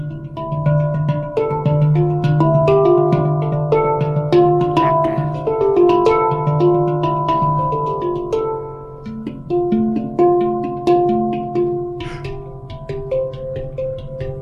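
A handpan made by the South African company Pan Ink SA played solo, a steady stream of struck metallic notes ringing and overlapping into a warm, sustained melody with a low hum underneath, fairly loud, with no voices.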